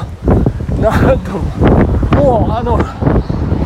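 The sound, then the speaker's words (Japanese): Strong wind buffets the microphone with a steady, loud low rumble that runs under a man talking while out running near Kichijoji Station, Tokyo, for the whole few seconds, swelling and dipping in gusts. “ちょっと風強くてすいません”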